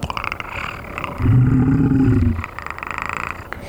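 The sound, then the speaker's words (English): A voice imitates a panther's growling purr, a low rumbling, throaty vocalization lasting about a second, loud and steady, with a rough vibrating texture, surrounded by quieter background chatter and clatter. “And he kind of steps back and he kind of makes a noise like. Yeah, that exactly.”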